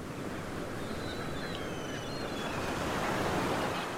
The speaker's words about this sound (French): Écoute le rugissement rythmique de la mer lorsque les vagues rencontrent la plage et se retirent. Lorsque les vagues viennent clapoter à côté du château de sable que les enfants ont construit avec leurs pelles, avec leurs mains.